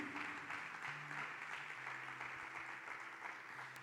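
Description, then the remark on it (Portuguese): An audience at a worship service applauding the Lord, a dense wash of many hands clapping at once, sustained and fairly loud throughout with a low hum beneath and no speech. “Quer aplaudir o Senhor? Aplaude com fé.”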